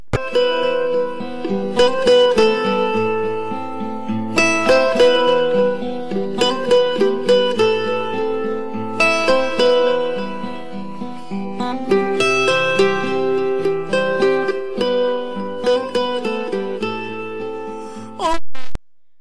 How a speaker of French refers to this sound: je vous laisse avec euh, … de bien entendu …